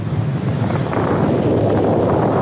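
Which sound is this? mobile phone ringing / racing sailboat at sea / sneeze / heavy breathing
racing sailboat at sea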